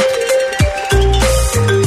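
A loud electronic gangster-themed phone ringtone plays a steady, synthetic melody, punctuated by three heavy, booming low gunshot thuds that land at irregular intervals beneath the tune. No voices are heard.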